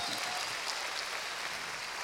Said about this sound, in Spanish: Démosle palmas fuertes a este Dios que nos ha llamado.